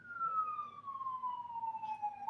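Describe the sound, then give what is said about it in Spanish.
An ambulance siren wails outside, one steady tone sliding slowly downward in pitch as it passes, fairly loud and clear over a low background hum with no talking. “Y ahora, cabrón, en ambulancia. Llegaron, cabrón.”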